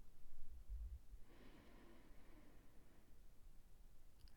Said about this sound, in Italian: Chiudo gli occhi oppure semplicemente abbasso lo sguardo e prendo due o tre bei respiri ampi, profondi.